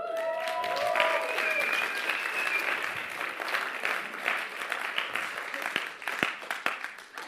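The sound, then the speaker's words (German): Audience applause at an ICF church service, welcoming the church's worship leader, fills the whole stretch: a steady dense wash of many hands clapping, with a few brief tonal notes at the start and sharper individual claps standing out toward the end. “Geben wir doch einen grossen Applaus für den Dave Bucher.”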